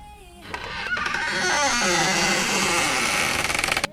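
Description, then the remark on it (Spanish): A door opens with a loud, harsh grinding creak that swells in quickly, drags on for about three seconds with a wavering pitch, then cuts off abruptly. No one speaks. “Qué ruido que hace la puerta.”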